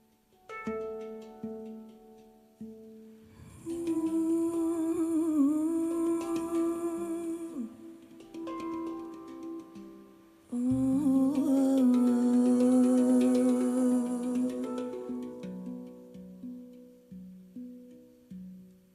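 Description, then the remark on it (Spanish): A cover version of a song, performed with a sustained, wavering lead voice over rich harmonic accompaniment, in two loud swelling phrases separated by a brief quieter passage, fading at the end. “Aquí lo que vamos a escuchar es una versión grande, enorme, …”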